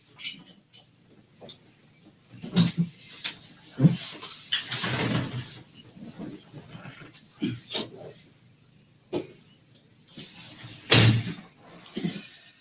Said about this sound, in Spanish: Eh, creo que voy a cerrar el balcón porque oigo demasiado a los pájaros y no me concentro.